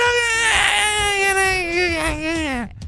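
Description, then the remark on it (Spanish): A voice imitates a child of about five or six wailing in a tantrum in a supermarket: one long, loud, sustained cry with a wavering pitch that slowly falls and breaks off at the end. “Llorando.”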